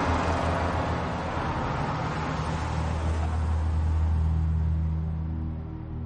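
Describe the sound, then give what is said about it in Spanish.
At dawn, buses leave a warehouse escorted by a police SUV: a loud, steady low engine drone with a tonal hum, easing slightly as they pull away at the end. No voices. “Al amanecer, los autobuses abandonan la nave escoltados por un todoterreno de la policía.”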